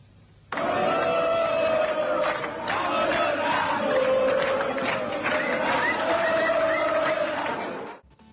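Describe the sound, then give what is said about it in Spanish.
A large crowd, gathered to trade bottle caps for rock concert tickets that never arrived, shouts and yells together in a loud, continuous roar of angry voices, starting abruptly and sustained for several seconds before cutting off. “Las tapitas llegaron, la gente estuvo, no estuvieron las entradas y ocurrió esto.”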